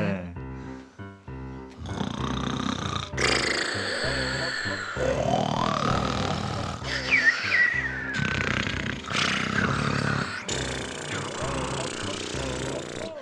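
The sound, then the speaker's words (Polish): A voice imitates loud snoring, a run of rough, rasping snores repeated over several seconds, with no other talk. “Owce i barany właśnie tam, na tej łące, spali sobie chrapiąc głośno pastuszkowie.”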